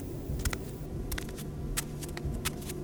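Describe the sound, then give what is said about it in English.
Soft, shuffling footsteps scuff irregularly across a workroom floor, about a dozen light brushing steps, quiet, over a low steady hum with no voices. “He knew it couldn't be true, but the workroom door opened, and there were soft, shuffling footsteps.”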